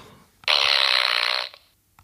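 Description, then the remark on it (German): A loud, raspy fart sound effect played from a small soundboard device lasts about a second, sharp, with a buzzy, sputtering texture before cutting off into near silence. No one speaks. “Also ich habe auf diesem kleinen äh, Gerät hier ich eine Explosion, äh, also einen Bums gesucht und das Einzige, was ich gefunden habe, war ein Furzgeräusch.”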